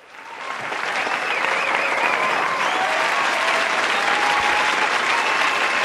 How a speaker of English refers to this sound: We'll give you that round of applause right here.